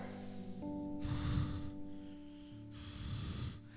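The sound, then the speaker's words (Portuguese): A voice imitates labored, shallow gasping breaths: two strained, raspy pulls of air about two seconds apart, fairly loud, over a quiet steady background hum with no speech. “E a respiração não era como você faz normalmente, não dava. A respiração era com pouco ar.”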